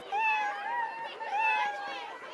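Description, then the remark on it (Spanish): Two long, high-pitched kitten meows, one right after the other, each wavering up and down in pitch. They sound fairly loud, with nothing else in the background. “Y entonces miraron para atrás allí estaba la solitaria gatita en el mismo lugar.”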